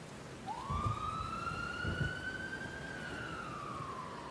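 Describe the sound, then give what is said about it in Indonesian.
An ambulance siren wails in one long sweep, rising sharply, holding a high steady tone, then sliding back down, clear over a low rumble of traffic. “Maka masuklah mereka masing-masing ke dalam mobil yang berbeda, lalu mengekor mobil ambulans.”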